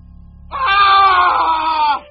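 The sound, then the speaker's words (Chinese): A single shrill, piercing scream of agony, heard over a phone call to the Yuncheng police 110 command center, rises abruptly and holds at a high, strained pitch for about a second and a half before cutting off, loud over a low rumbling background. “电话里突然传来一声凄厉的惨叫，接线员愣了：“先生，先生！”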